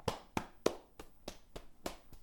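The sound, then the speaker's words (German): Flat hands pat against the body from top to bottom in a steady rhythm, eight soft, dull slaps about a third of a second apart, fairly quiet, with no voices. “Einmal aufstehen, einmal schütteln, vielleicht mit den flachen Händen mal so abklopfen, den Körper”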